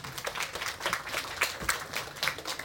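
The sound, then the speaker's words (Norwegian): A crowd applauds with a steady patter of many hands clapping, fairly soft, sustained throughout without any voices, welcoming speaker Pål Morander, director of Statens arbeidsmiljøinstitutt. “Pål Morander, da rekker vi applause.”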